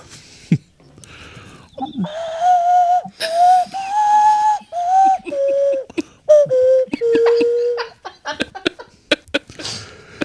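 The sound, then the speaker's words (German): A flute is played in a tavern: a breathy melody of several held, slightly wavering notes that step gradually downward in pitch, broken by puffs of air and small clicks between phrases. “Ich hole die Flöte raus und äh, fange begeistert an zu spielen.”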